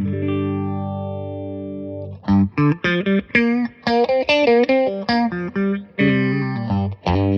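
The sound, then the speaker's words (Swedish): An electric guitar played through an effects pedal: a held, distorted chord swirls with a sweeping, chorus-like wobble for two seconds, then gives way to a run of choppy, rhythmic notes. No one talks. “Han tyckte bara det låter jättekonstigt om jag har den på basen. Men den mm. kanske är tuff på gitarr.”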